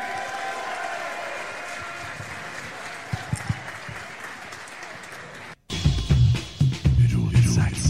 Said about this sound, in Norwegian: Gi dem begge en stor applaus.